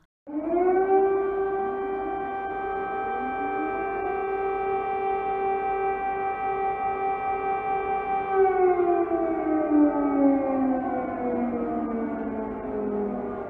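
A loud air defence siren wails steadily in the capital, Kyiv, and in Lviv, Ukraine, its tone holding high before slowly dipping and sliding downward, sounding continuous and sustained with no voices present.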